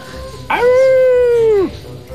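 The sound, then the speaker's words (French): A single drawn-out howl, steady and loud, held for about a second before its pitch sags and it cuts off, a child imitating a werewolf in a performance hall that has suddenly gone dark. “Certains hurlent comme des loups-garous.”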